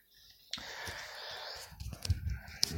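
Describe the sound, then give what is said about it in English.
A breathy inhale drawn in for about a second, followed by a rougher exhale with soft mouth sounds, as someone pulls on a Red Bull flavored vape and blows the vapor out. “I, I do have a vape and this, it's a red bang. It's that Red Bull flavored vape, which I've been doing a lot of”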